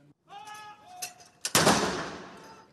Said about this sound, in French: 96 coups de canon sont tirés depuis plusieurs endroits emblématiques de la capitale anglaise.